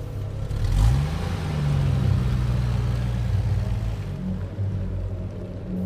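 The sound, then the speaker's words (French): A car engine revs up and holds a steady, rumbling drone, its pitch climbing and settling over several seconds, with no voices; cars arriving carrying a commando and their hostages, including ambassador Clinton Knox, with Mexican and French diplomats. “Quant aux membres du commando et leurs otages, dont l'ambassadeur Knox, ils arrivaient en voiture en compagnie des diplomates mexicains et français qui favorisaient les négociations.”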